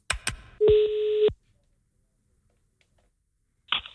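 A phone call being placed to a help line: a couple of sharp clicks, then a steady electronic tone for under a second, a silent pause, and one more short burst of sound, with no talking.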